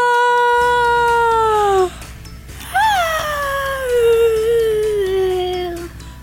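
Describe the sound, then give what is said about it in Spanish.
A voice sings an open, high 'ah' in head voice as a vocal exercise, mouth opened wide as if yawning: two long sustained tones, the first slowly sliding down, then a short pause and a second that swoops up and gradually falls. “Hagámoslo nuevamente, pero esta vez abramos bien la boca, como si estuviéramos bostezando. Ah.”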